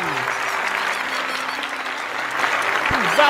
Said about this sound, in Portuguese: Bem forte. Aplausos!